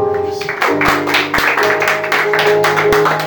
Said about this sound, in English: Y'all come on and give the Lord a hand clap